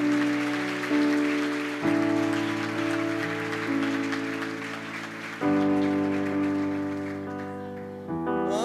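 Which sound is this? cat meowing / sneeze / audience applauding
audience applauding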